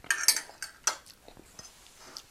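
Metal cutlery clinks and scrapes against dishes as someone eats lunch, in a quick irregular series of bright taps, a few louder knocks early on, then softer scattered clatter. No one speaks.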